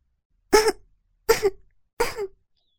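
Three light coughs in an evenly spaced series, each a short breathy burst with a soft throaty tail, with silence between them and no talking.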